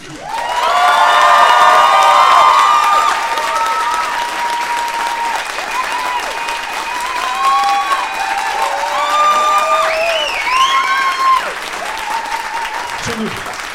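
Loud, sustained applause from an audience with cheering, whoops and high-pitched shouts rising above the clapping, continuing steadily for over ten seconds before tapering slightly at the end.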